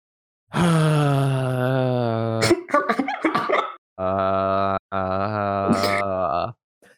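A long, loud vocal groan, made while sinking down into a chair, steady and drawn out for about two seconds, followed by choppy breathy sounds and then two more sustained low groaning tones, with no words spoken.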